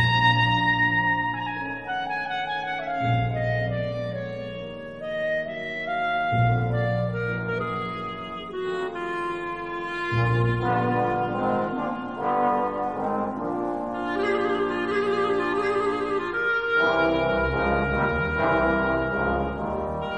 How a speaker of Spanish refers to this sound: Vamos a hacer una breve descripción de este instrumento, que antes de seguir, por cierto, quiero hacer notar ese espectacular solo de clarinete que hemos oído y que pertenece a la obra de Rhapsody in Blue de George Gershwin